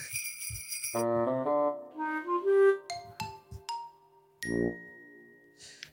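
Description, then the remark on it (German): Bright ringing bells and chimes play a short festive jingle as an intro, with tinkling high tones, a few struck dings, and a final sustained ring fading out; no one speaks. “Die Glocken und die Glocken habe ich schon gesagt, die klingen und das bedeutet, wir sind bereit fürs Intro.”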